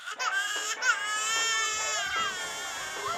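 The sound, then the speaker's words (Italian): A baby cries continuously and insistently while being rocked in a living room, a high, wavering wail with rising and falling pitch, loud, with no other voices or sounds around it. “Un giorno se ne stava in salotto a cullare il piccolo che non ne voleva sapere di calmarsi.”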